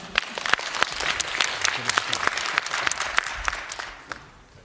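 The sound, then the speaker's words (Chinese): An audience at a startup demo day claps steadily for several seconds after a pitch, a dense crackle of many hands with a few sharper individual claps standing out, tapering off near the end. “这是拓江者，听懂掌声，谢谢大家。”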